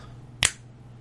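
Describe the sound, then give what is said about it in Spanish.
A single crisp finger snap, sharp, cutting through a quiet background with a faint low hum. “de hecho, ese es el sonido. Ese es el sonido de spoiler territory.”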